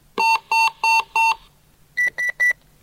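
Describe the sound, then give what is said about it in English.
An electronic emergency alert tone, sent as a demonstration, sounds from El Dorado County Neighborhood Radio Watch two-way radios: four loud, evenly spaced beeps, a brief pause, then three quicker, higher-pitched beeps, clear with no talking. “Okay, so I'm going to send an alert, and you'll see what these radios do, I hope.”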